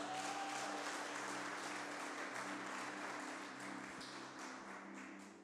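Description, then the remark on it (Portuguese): An audience applauds Jesus loudly and steadily, a dense wash of many hands clapping at once that holds for several seconds, with a low sustained hum underneath and no one speaking. “E se você quer nisso, aplauda Jesus bem alto.”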